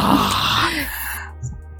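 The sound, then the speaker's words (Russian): A deep, heavy breath rushes loudly right against the microphone for about a second, a breathy roar that fades into a low, quiet rumble. “А мое глубокое дыхание вырезаться не будет.”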